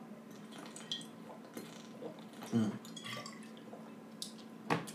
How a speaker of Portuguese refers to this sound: Espera aí, pausa para a água.